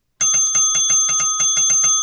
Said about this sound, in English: And if it does, ding the bell 20 times.